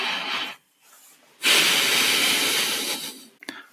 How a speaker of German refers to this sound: Den schweren Atmer lassen wir hier drinnen. Ja, den Atmen, der Atmer bleibt drin.